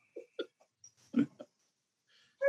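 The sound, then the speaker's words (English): Several short, quiet coughing bursts in an irregular sequence, with a slightly louder, rougher cough in the middle and brief silences between them. “I'm sorry, I, am coughing in the background, trying to, uh, yeah, yeah.”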